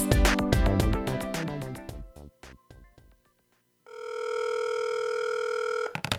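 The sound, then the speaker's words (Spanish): A telephone rings for an incoming call to the radio station La Voz del Caribe, Radio 107.7, with a steady, loud electronic tone lasting about two seconds, preceded by a rapid burst of chiming, beeping tones that fade out before the ring begins. “¿Y eso que nos llamas? Es que fíjate que te estoy llamando”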